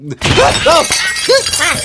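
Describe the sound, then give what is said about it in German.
A table collapses with a loud crash of breaking dishes, a cake landing in a duck, a sudden burst followed by nearly two seconds of clattering and shattering, with a voice crying out over the racket. “Der, der Tisch ist eingestürzt.”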